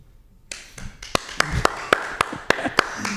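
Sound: round of applause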